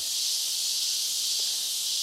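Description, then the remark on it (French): Cicadas buzz in the jungle, a steady, unbroken high-pitched drone that holds the same loudness for the whole stretch, with no voices or other sounds standing out. “on observe les capucins, les perroquets se sont barrés. Les cigales arrivent.”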